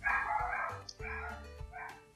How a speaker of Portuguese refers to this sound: Estão latindo.